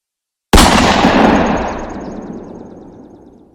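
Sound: gunshots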